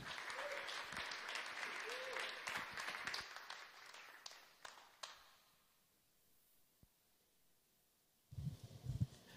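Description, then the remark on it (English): A crowd applauds loudly for about five seconds as a speaker is welcomed onto a stage, the clapping thinning out into scattered claps before fading to quiet, then a man's voice begins speaking into the microphone. “That was a lot louder than the 8 a.m., I can tell you that.”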